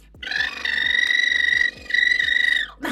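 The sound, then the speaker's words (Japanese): A fairly loud vocal lip trill, as practiced in singing lessons: lips flutter in a buzzing brrr over a sustained voiced pitch, held in two long stretches with a short break between them. “なんか、あの、いつもレッスンでやってる、ブルルってこのリプトリルあるじゃんブルルルルこれさ”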